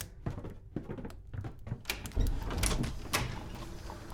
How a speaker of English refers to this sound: As the bell sounded the hour, there came a knocking at the street door. I went down to open it with a light heart.